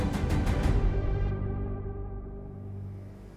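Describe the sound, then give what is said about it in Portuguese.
Steady engine rumble of a Gulfstream private jet on the runway at Teterboro, New Jersey, on 12 July 1994, with a tonal hum, its brighter hiss cutting away after about a second as the jet settles into a lower idling drone. No voices. “Barry Diller sai do seu jato Gulfstream e desce os degraus até a pista.”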